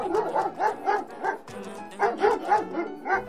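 A dog barks in two quick runs of short, yappy barks, about ten in all, with a brief pause between the bursts; fairly loud, with no talking.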